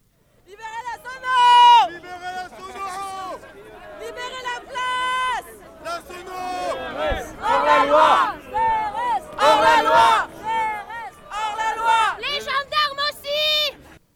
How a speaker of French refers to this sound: Écoutez les cris qu'on entendait sur la place de la République lundi fin de journée au moment de cet échafourée.